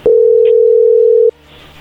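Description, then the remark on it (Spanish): A telephone call's ringing tone: one loud, steady electronic beep at a low-mid pitch, lasting just over a second before cutting off to faint background hiss. “A ver, ahí entró la llamada, no haga ruido.”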